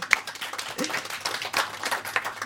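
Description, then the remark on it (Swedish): A burst of applause from a group for the producers of the radio programme Radio Fri, dense overlapping claps at a steady, moderate level, lasting a couple of seconds with no pause. “Applåd!”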